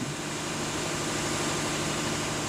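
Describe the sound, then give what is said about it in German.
Large engines in the combined heat and power plant of a farmer's biogas facility, producing about 500 kilowatts of electricity and similar heat, run steadily, a loud, continuous low drone with a constant hum and vibration, with no voices. “Im Blockheizkraftwerk seiner Biogasanlage stampfen die Motoren.”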